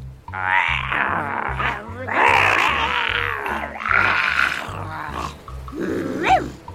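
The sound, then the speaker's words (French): Several children make exaggerated, raspy pirate-style grunts and growls in rough bursts, loud, over a steady thumping background beat, ending with a rising strained vocal squeal. “On va tous lui parler en grognement de pirate, tiens.”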